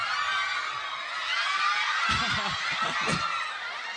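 A large audience at the Japan Move Up event in Okayama screams and cheers in a continuous, loud, high-pitched roar that fills the whole stretch, with a few brief low thumps or voices poking through near the middle.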